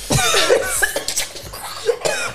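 A loud fit of harsh, sputtering coughs from someone choking on food they just ate, coming in several rough bursts over a couple of seconds with no talking.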